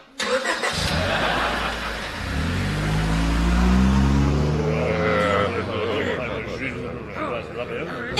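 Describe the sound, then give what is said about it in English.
A car engine cranks and catches, then revs with rising harmonics as the vehicle pulls away to drive about ten miles to a big house, the steady motor drone fading slightly toward the end; faint voices murmur in the background. “That's why I came in the car.”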